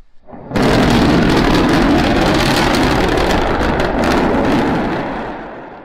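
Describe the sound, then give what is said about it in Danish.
The SN9 rocket prototype explodes during its landing attempt after failing to relight its engine a few hundred metres above the landing platform: a sudden loud burst swells into a long, rumbling roar, rolling on for several seconds before slowly fading. No voices are heard. “Altså nogle få 100 meter over øh, landingsplatformen, der forsøgte SN9 altså at tænde sin motor, men det gik ikke helt som planlagt, og i stedet så blev det til endnu en kæmpe eksplosion, ligesom med forgængeren SN8.”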